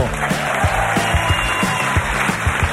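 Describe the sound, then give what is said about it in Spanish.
An audience applauds steadily at a live broadcast of a programme from the Guggenheim Museum Bilbao, many hands clapping in a dense, loud wash with some sharper individual claps standing out, continuing throughout without any talking. “aquí tienes tu altavoz Bluetooth de Energy System y el aplauso de tu público.”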